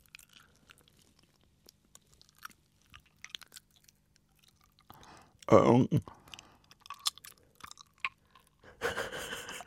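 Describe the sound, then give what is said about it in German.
Wet, close-up smacking and clicking of a tongue moving slowly along all sides of the teeth as near to a microphone as possible, scattered soft clicks building to a louder, sloshy burst midway and again at the end, with a brief murmured voice. “Und jetzt fahren wir sie an allen Seiten der Zähne ganz langsam Von entlang.”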